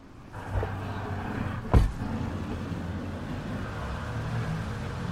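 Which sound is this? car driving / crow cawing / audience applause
car driving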